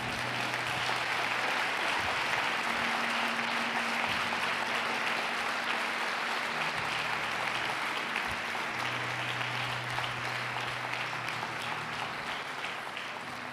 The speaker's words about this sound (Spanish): Aunque está fuerte, en señal de amén, de así sea, dele un aplauso a Dios, por favor.